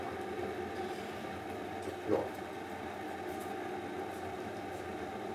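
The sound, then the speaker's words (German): A coffee pad machine runs and heats up with a steady, even hiss and low mechanical hum, broken by a single short knock about two seconds in. No one speaks. “gehört im Hintergrund, wie die Maschine arbeitet.”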